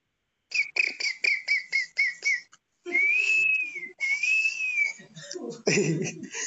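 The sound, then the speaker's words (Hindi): A jungle ambience effect played as background for a stage performance of the Ramayana set in the Panchavati forest: a quick run of short rhythmic whistled chirps, then two long sustained whistles, giving way to brief rustling and a low rumbling burst at the end. “तो अब देर न करते हुए यह मंचन शुरू करते हैं पीछे से मधुर जंगल का ध्वनि चलती हुई”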